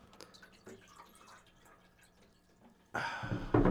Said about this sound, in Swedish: ja, jag tänker det är väl lika bra att hälla upp vatten va?